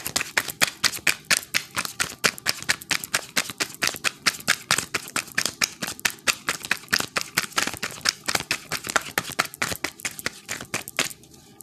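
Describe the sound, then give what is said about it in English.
A deck of tarot cards being shuffled, a long run of rapid, crisp riffling snaps and flutters repeating steadily for several seconds, with no voices. “yeah, I just got done with that. That whole shuffle. That was a whole shuffle, y'all.”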